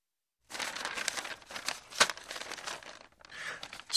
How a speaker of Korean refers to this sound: 종이에 영점을 기록하고 후아나에게 준다. 다른 종이를 집는다.